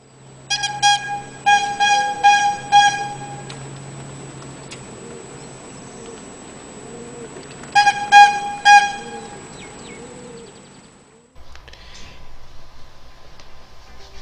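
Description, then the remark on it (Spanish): A street bread vendor's horn honks in the late afternoon, around 5 or 6 pm, in a quick series of bright, brassy toots, pauses, then blasts again in a shorter burst, all over a steady outdoor street hum. “Eh, no sé si escuchabas el sonido y salías corriendo de tu casa con tu bolsita de tela y esperar a que abra eh, su caja mágica ese panadero”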